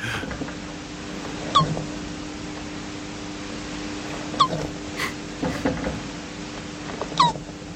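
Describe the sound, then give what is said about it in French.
Three short, high, squeaky whimpers from a young Hermann's tortoise during mating, spaced a few seconds apart over a steady background hiss, with a few soft knocks in between. “On va écouter le son, enfin le son, pardon, l'orgasme de la tortue, parce que je voulais quand même finir en apothéose.”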